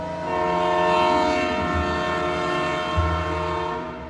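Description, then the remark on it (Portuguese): A train's horn blows in a long, steady, loud blast with strong harmonic tones, while the low rumble and clatter of the train starting to move runs underneath. “O trem está prestes a sair”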